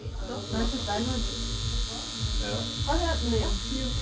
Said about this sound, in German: Es ist ein Vibrator.